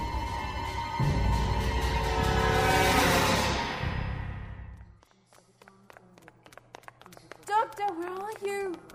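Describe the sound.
An underground train roars in, its rumble swelling loud before cutting off abruptly, followed by quiet clicks and a voice speaking briefly.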